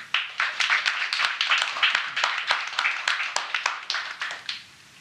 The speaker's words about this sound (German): Das ist, glaube ich, ein Applaus wert.